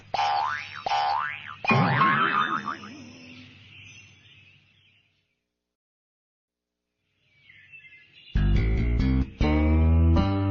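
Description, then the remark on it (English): A series of springy cartoon boing sounds for a frog hopping away, pitch sweeping up and down, followed by a longer wobbling boing that fades out, then a pause before other bright, tonal sound effects. “Frog hops away. Hop, hop, hop.”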